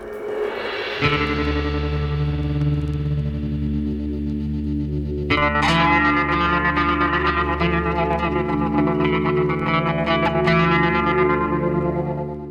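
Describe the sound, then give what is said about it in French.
Ethno-dub music with oriental influences and 1970s-style psychedelic echo effects: a dense, droning layered texture swells in, then a fuller, brighter section with rhythmic accents enters midway, washed in effects and reverb, steady and loud. “Dans son chaudron de chaman transgenre, l'homme conjugue son goût de l'extase orientale à sa science du dub, elle-même teintée de psychédélisme 70s.”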